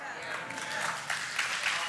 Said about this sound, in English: Yeah, that sounds like a golf clap, but I'll, I'll take it. You know, golf clap.